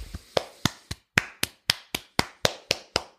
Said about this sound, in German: Da klatschen sie alle fröhlich. Schaut in die Gesichter.